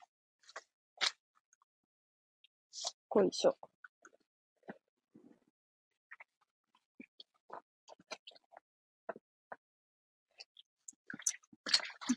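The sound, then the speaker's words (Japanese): Someone rummages through a bag looking for keys, kept in a zippered pocket that had come open: irregular rustles, soft clicks and crinkly handling noises scattered over several seconds, with one brief muttered word partway through. “鍵入れとったところのチャック開いとったから、ちょっと焦ったわ。あったけど。無事に、鍵ありました。”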